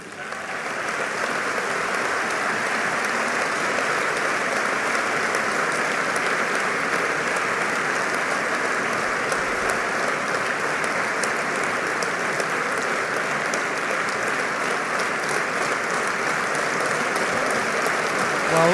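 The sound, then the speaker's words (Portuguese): A crowd applauds steadily for nearly twenty seconds, a dense, even wash of clapping that holds at a strong, constant level from start to finish with no voices over it, in response to a reference to the International Day for the Elimination of Violence against Women on 25 November. “Aplauso prolongado para esta referência agora com a Sal a levantar-se ao fim de alguns segundos para esta evocação do Dia Internacional contra a Violência eh, contra as Mulheres.”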